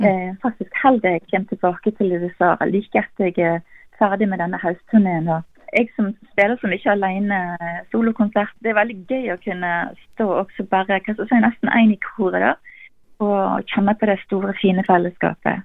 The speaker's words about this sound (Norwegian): Vi beklager litt dårlig lyd på telefonlinjen vi hadde til ….